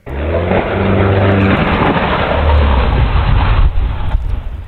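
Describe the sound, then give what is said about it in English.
A small Piper propeller plane on approach to Republic Airport in Farmingdale crashes into a wooded area in Lindenhurst, recorded by a doorbell camera: a loud droning engine tone giving way to a harsh, rushing noise, with a couple of sharp knocks near the end. No voices. “A doorbell camera picked up the sound of the crash.”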